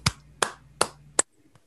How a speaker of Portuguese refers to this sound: Você começa a aplaudir.